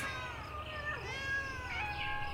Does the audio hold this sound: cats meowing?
yes